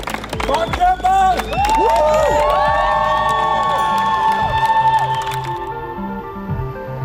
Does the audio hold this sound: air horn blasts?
no